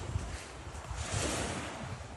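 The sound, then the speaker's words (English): Steady, rushing wash of ocean surf at secluded Nakano Beach on Iriomote Island, Japan, in the afternoon after a morning storm: a broad hiss with low rumbling swells and some wind buffeting, moderately loud and continuous with no voices. “Raita led me down a forest trail that opened up to the secluded Nakano Beach”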